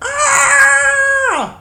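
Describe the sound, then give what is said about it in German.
A voice imitates a woman's scream: one sustained, high-pitched shriek held steady for over a second before sliding downward and trailing off. Loud, with no other sounds. “Während du dich gerade anziehst, hört ihr beide plötzlich aus dem Flur so ein Klirren, so ein und äh, ihr hört auf einmal eine Frau schreien.”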